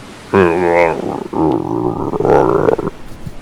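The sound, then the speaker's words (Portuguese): A person vocally imitates a hungry growling stomach with a low, guttural, drawn-out rumble in about three connected bursts lasting a few seconds, fairly loud. “E eles escutam novamente a barriga dele roncar como se fosse um som gutural.”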